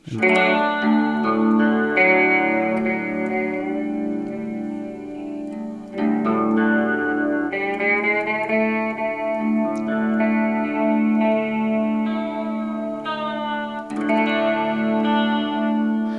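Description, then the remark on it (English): Sustained electric guitar strings ring out through chorus and distortion effects. Notes shift and are re-struck every few seconds as the guitar is tuned to a D A D A A D tuning. No one speaks. “Maybe I'll I'll tune to that.”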